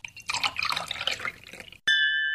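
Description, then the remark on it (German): Local wine splashes and gurgles as it's poured for a second or so, then glasses clink once in a toast to the winner, bright, the ring sustaining to the end. No one speaks. “Auf den Sieger angestoßen wird natürlich mit einem Gläschen heimischem Wein.”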